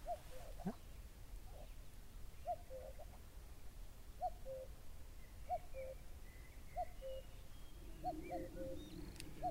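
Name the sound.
common cuckoo calling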